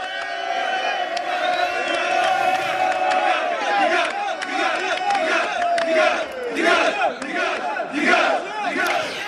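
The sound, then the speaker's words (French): A large crowd of protesters chants and shouts together in the street during the 2011 revolution, chanting "dégage", a dense, continuous roar of many voices with rhythmic rising cries, loud throughout. “Et là, vous dites, quand vous entendez ce fameux dégage, quand vous voyez cette marée humaine dans les rues”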